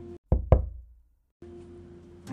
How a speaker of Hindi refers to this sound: कि तभी दरवाजे पे दस्तक हुई